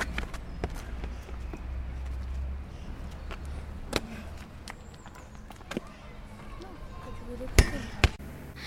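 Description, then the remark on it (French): Outdoors, running footsteps and scattered thuds lead up to a sharp kick of a football, followed moments later by a loud ringing clang as it strikes the crossbar and rebounds into the goal, with faint voices in the background. “Et des fois, ça, la barre, par exemple, ça c'est la barre, je tire et elle rebondit comme ça et elle rentre dedans.”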